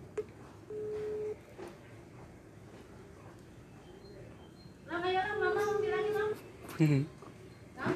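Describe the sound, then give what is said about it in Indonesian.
A steady, flat phone ringback tone from a call to the caller's mother sounds once briefly, then returns a few seconds later beneath warbling, meow-like vocal sounds, with faint background chatter throughout. “gue telepon mak gue aja biar kayak disangka jauh banget gitu rumah gue sama dia”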